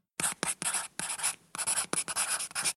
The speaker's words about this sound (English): And the Rebbe took a piece of paper and wrote a letter.